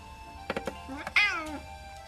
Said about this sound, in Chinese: 啊，露露的盘子空了，难怪啊，她饿得喵喵叫。